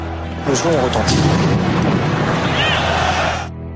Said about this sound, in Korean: 당시 축구 중계 방송에서도 폭발음이 들릴 정도로 폭발력은 엄청났습니다.